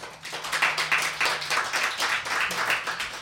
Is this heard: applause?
yes